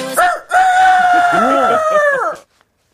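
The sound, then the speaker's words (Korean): A loud rooster-like crow, a short opening note then a long drawn-out wavering cry lasting about two seconds, a sound effect within a song that imitates a rooster. “진짜 닭이 우는 걸로 아신 분들 정말 많으실 걸로 예상이 됩니다.”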